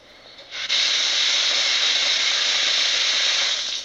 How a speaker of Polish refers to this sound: Jestem w łazience, puszczę wodę w wannie na chwilę. Tylko tak, żeby mi się to nie zalało gdzieś.